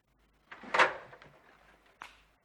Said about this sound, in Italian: Ecco qua, tavolo ribaltabile. Tac.